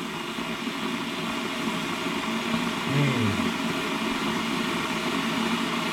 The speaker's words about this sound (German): Das Wasser kocht natürlich noch nicht, aber warum macht der Wasserkocher nach nur 3-4 Sekunden eigentlich schon so einen Krach?